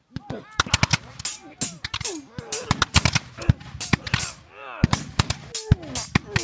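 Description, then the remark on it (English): A battle sound effect of dense, irregular gunfire and cannon fire: many sharp, loud cracks and shots in quick succession, with shouting voices and occasional heavier cannon blasts mixed in, depicting skirmishes with guns and sabers between American soldiers and a retreating Mexican army. “A few American units give chase to the Mexicans, where small skirmishes with guns and sabers break out.”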